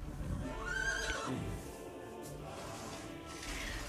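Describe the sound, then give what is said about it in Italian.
A horse being whipped and kicked by a coachman in the centre of Turin in 1889 lets out one loud whinny, a quavering cry that rises and falls over about a second, then fades into a steady background rumble. “nel centro di Torino, Nietzsche, uscendo di casa, vide un cocchiere frustare e prendere a calci il suo cavallo.”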